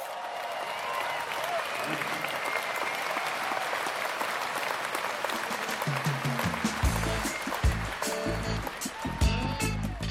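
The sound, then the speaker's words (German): A large concert audience applauds continuously in the rain, dense clapping filling the whole stretch over a wet hiss, with heavy low thumps breaking in during the second half. “Und der Applaus trotz des Regens brandet auf.”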